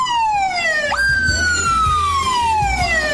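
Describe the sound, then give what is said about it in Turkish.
A loud police car siren sweeps downward in long wails, the pitch dropping and then jumping back up, over a low rumbling engine beneath it. “Ya şu mesela bak kızgınlık sesi bu bak.”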